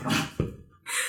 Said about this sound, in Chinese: 说我们家狗在这儿咬拖鞋呢。它实在是觉得人类这些愚昧的思想它理解不了。